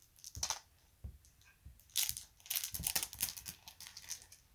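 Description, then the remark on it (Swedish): Small rune stones are carelessly poured into a pouch, half of them falling outside, making a busy, irregular run of crisp clicks and clacks mixed with crinkly fabric rustling, in bursts that grow denser toward the end. No one speaks. “Och nu bara slarvigt hällde jag i dem så att de hälften ramlade utanför.”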